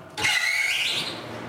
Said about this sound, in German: Wegen der Luftfeuchtigkeit brummen immer wieder große Ventilatoren.